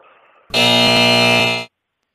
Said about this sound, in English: You, you in a fire alarm uh, building or something? That's just my buzzer. To get, every time I make a bad joke, I hit the.